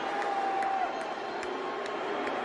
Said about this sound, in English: Cheers and boos, I see.